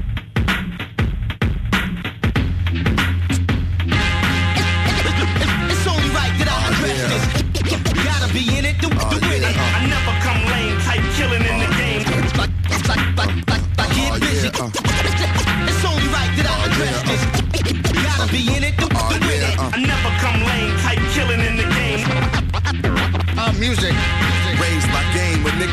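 A hip-hop track plays loud and continuously, with a heavy, steady bass line and a driving beat, plus what sounds like turntable scratching near the start.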